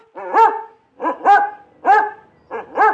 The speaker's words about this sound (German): Ja, ja, Nelson, wir haben verstanden, rufen sie dem Hund von Lael zu, der ungeduldig an der Tür steht.